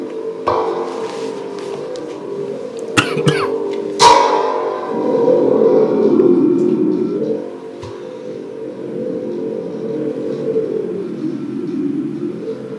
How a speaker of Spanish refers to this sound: de este lado tenemos un tambor huracán o tambor tormenta, que este es su sonido.